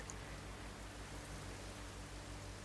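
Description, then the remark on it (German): Steady rain during a thunderstorm hisses and patters evenly throughout, a dense, continuous wash of drops at low volume with a faint low rumble underneath and no voices. “Höre das Grollen des Donners, sehe die Blitze und spüre den Regen prasseln.”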